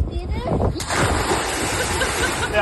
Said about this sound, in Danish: Men man, men man kan høre det på den måde, du bryder vandet på. Ah, Hva, og prøv altså, lige at altså- høre en kondisør. Altså, ja. så for eksempel maveplaskeren her.